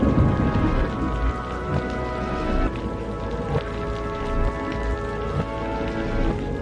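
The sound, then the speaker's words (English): Heavy rain pours down steadily, a dense continuous hiss of drops over a deep low rumble of thunder, with no voices. “left the house, diving into the storm without hesitation, and ran to her small car.”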